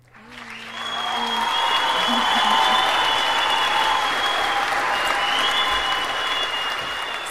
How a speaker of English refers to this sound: oh yes let's applause us